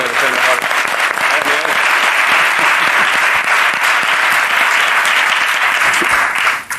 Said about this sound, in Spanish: Eh, Miguel, muchas gracias. Un aplauso a Miguel Campos. Gracias, Miguel.